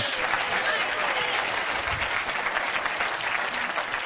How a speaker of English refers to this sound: Somebody give the Lord a hand clap of praise.